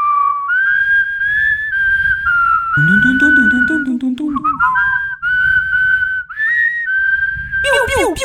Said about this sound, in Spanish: ni sabe chiflar, tiene dinero.